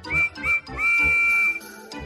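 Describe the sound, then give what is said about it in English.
The high, clear whistle of Percy, a small green tank engine with four small wheels and the number six on his cab, sounds two short toots followed by one long sustained blast, loud, over a soft low rumble. “Percy has a whistle that sounds like this.”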